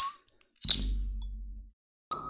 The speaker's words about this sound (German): deswegen sage ich, machen wir erstmal schön leckerer Kölsch auf. Prost, mein Lieber. Prost.